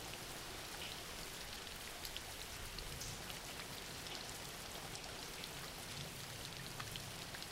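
Steady rain falls without pause, a soft, even hiss of drops spread across the whole range with faint scattered patters, fairly quiet and alone, with no voices.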